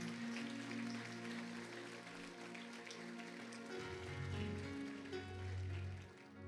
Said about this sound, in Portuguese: Se coloque em pé em nome de Jesus, aplaudindo ao Senhor. Aplauda bem forte a Jesus, olhe para cá.